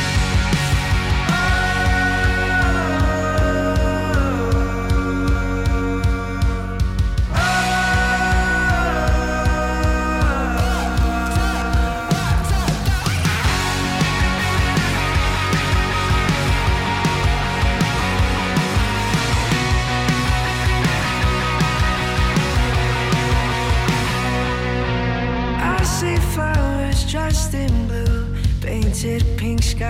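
An indie rock song with English vocals plays at full volume, with a dense full-band sound and steady driving rhythm that continues throughout. The mix shifts partway through and grows brighter near the end.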